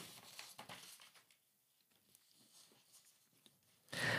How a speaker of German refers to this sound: Äh, 22. 22, muss ich wieder blättern.